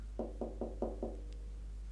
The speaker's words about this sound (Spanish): En eso se oyó un golpecito a la puerta.